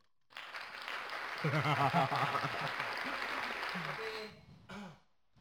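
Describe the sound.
A burst of applause, dense steady clapping lasting about four seconds, with voices calling and talking over it before it cuts off and a brief voice follows.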